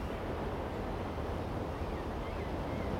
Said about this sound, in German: Auf der Dachterrasse schlägt mir ein warmer Wind entgegen.